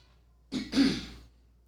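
A person clears their throat in a studio: a short rough burst followed by a longer, gravelly rasp, lasting about a second with quiet on either side and no talking.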